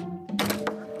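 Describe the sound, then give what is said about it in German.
A door is opened with a soft thunk and a short rattling, creaking burst of sound over a steady low hum. “Ich mach mal die Tür auf.”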